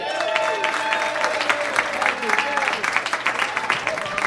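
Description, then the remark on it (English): A comedy show crowd applauds as a comic is brought to the stage, dense, steady clapping that holds across the whole clip, with voices mixed in, some cheering and a few shouts rising above the clapping. “You stopped clapping pretty fast.”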